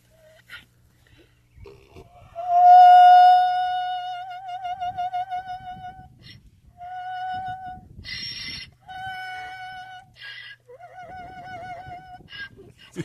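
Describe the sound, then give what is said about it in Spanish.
A donkey from Ireland brays in a long series of loud, drawn-out, wavering honks, each call sustained and quivering before breaking off and starting again, with no talking. “Sí, canta bien este burro, ¿eh?”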